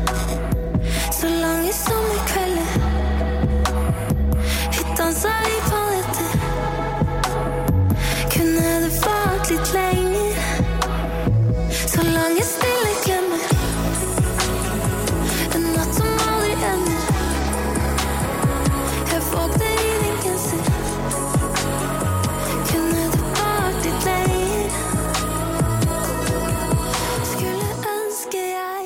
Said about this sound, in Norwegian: hun har nemlig sluppet en ny, deilig låt i sjangeren som jeg valgte å kalle norsk pop på norsk